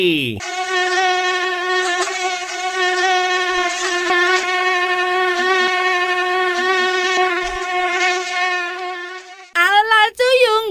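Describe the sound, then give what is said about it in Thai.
A steady, high-pitched whine of female and male mosquitoes buzzing in flight, fairly loud, continuing for several seconds before a brief wavering burst at the end. “เอาเสียงยุงมาให้พี่วันก่อนได้เลย”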